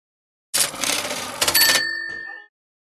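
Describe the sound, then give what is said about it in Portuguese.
A donation alert sound effect for a super sticker: a bright cash-register style chime, a burst of jangling metallic clinks like coins followed by a ringing bell tone that sustains briefly before cutting off, with no talking. “Super sticker da Julia Blocks.”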